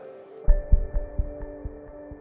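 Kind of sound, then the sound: human body sound, fast heartbeat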